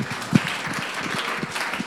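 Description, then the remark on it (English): A crowd at a worship service claps for the Lord together, a dense steady wash of many hands clapping at once, with one sharper louder clap standing out early on and no voices heard. “Give the Lord a clap of friend.”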